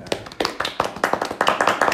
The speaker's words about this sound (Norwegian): Jeg syns egentlig at vi bare liksom kan klappe litt for den.